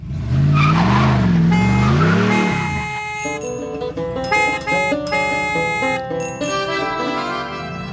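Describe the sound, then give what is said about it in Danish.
A short traffic jingle played on the show Slet ikke live to open a traffic segment. It begins with a loud revving car and screeching, skidding tires, then breaks into a bright, upbeat musical sting with layered synth chords. “Kan du også finde den der trafikjingle derovre?”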